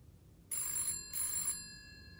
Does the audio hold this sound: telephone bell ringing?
yes